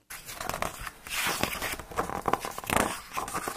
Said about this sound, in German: Wir blättern in seinen Büchern.